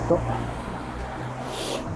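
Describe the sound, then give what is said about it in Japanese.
Steady low rumble of heavy street traffic, with many cars passing on a road and one vehicle swelling past in a brief whoosh near the end. The noise is moderately loud and continuous. “ちょっとね、今、道を渡りたいんですけど、ここなんかすごい車が今通ってて、何なんだこれみたいな感じですけど。”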